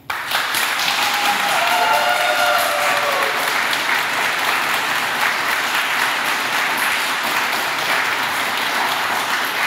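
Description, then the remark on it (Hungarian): A crowd applauds steadily for nearly ten seconds at a forum of parliamentary candidates, a dense, sustained wash of clapping from a sizable audience, with a faint voice briefly audible near the start. “Elnézést, bocsánat, egy pillanatra azt szeretném megkínni a közönség soraiból, hogy lehet tapsal vélemény kifejezni, de a megszólás lehetőségét hagyjuk meg a képviselőjelölteknek, ezért jöttünk ide, hogy őket hallgassuk.”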